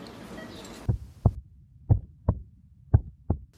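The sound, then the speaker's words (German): A slow, steady heartbeat thumps in low, muffled pairs, six beats heard clearly, after a brief burst of hiss at the start. “Ich kann den Herzschlag ganz genau hören.”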